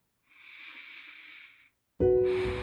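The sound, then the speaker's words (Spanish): A slow, airy breath drawn in for over a second, followed by a short pause and then an abrupt, loud, resonant tone. No speech. “Entonces, simplemente te voy a pedir que cierres tus ojos, respira profundo, inhala y exhala.”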